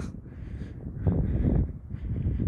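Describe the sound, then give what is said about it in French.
Wind blows steadily outdoors in a forest, a low rushing roar that swells louder in the middle and eases off before rising again, with no voices present. “Je crois qu'on entend très bien le vent.”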